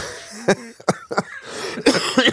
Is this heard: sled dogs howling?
no